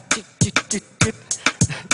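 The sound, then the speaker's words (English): A dry four-against-three polyrhythm, one sound played three times and another four times in the same span: low thumps interlocking with bright hi-hat ticks, about nine hits in two seconds at uneven, layered spacing, with no talking. “Hey, so I can even make you make little hi hat.”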